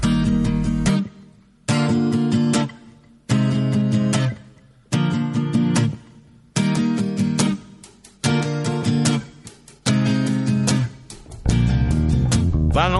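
A Celtic ballad plays loud and close, its full chords arriving in steady repeated phrases, each swelling and then falling back to a brief hush before the next one starts.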